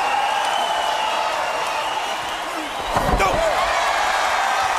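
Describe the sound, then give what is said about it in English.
A single heavy crash as wrestler Goldberg, pulled over the top by Kevin Nash, slams into the ring turnbuckle about three seconds in, cutting through the steady roar of a large arena crowd. “He just pulled him over top, and Goldberg hit the turnbuckle.”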